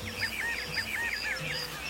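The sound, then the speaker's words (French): Several geese honk and clack their beaks in quick, overlapping bursts, a steady rhythmic chorus of nasal calls at moderate volume with no talking. “À sa grande surprise, des quatre coins de l'horizon arrivaient au même instant d'autres volatiles plusieurs oies claquant du bec”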